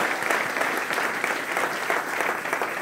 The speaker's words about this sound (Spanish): Aleluya, si le va a dar un aplauso a Dios.